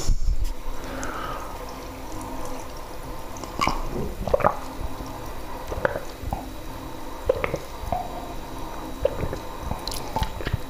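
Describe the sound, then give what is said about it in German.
A heavy mug being washed under water: irregular wet squishing and sloshing with occasional drips and light clinks, steady throughout with no one talking. “Ich werde die Tasse jetzt auch waschen und dann werde ich sie natürlich wieder in die Schublade stellen, weil wie gesagt, die möchte ich nicht oft nutzen.”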